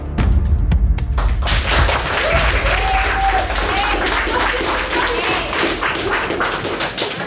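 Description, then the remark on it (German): Sustained audience applause fills the room during a debate, given as a vote by applause, a dense wash of many hands clapping at steady loudness for several seconds, with faint voices mixed in beneath it. “Anhand Hand Applaus kann ich es nämlich nicht ganz abschätzen.”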